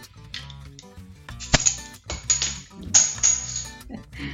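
beer bottle being uncapped

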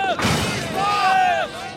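gunshots sound effect

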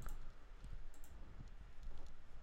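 computer mouse clicking

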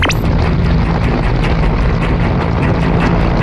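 military helicopter rotor

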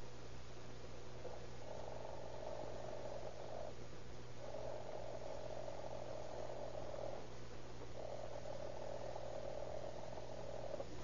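alarm clock bell ringing

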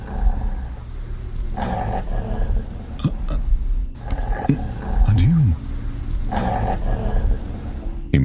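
dog growling

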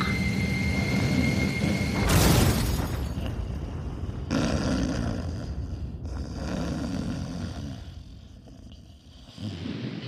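airplane engine roar

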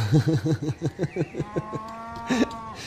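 cows

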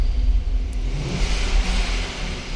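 cars passing outside

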